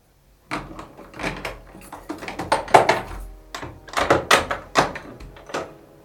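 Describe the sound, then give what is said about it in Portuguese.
A small cage door clatters shut, followed by a run of sharp metallic rattles and clicks as a padlock is fastened to lock it, with no talking. “O príncipe, incontinente, agarrou um cadeado e trancou bem trancadinho a porta da gaiola.”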